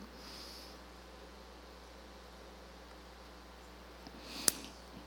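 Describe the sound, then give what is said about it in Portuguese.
A quiet, hissy room with a soft, brief sip of water toward the end, followed by a small sharp click, like a cup being set down. No one speaks. “Deixa eu tomar uma água aqui.”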